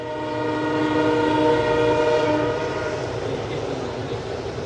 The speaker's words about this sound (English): You know, it's summertime, Legion baseball here at Duncan Field. The train's going by. Nothing like it here.